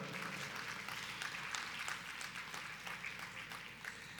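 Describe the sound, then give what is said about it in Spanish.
Steady applause from a church audience fills the whole stretch, a dense crackle of many hands clapping at an even, moderate level with no voices standing out, applauding everyone who helped. “Un aplauso para todos los que nos ayudaron.”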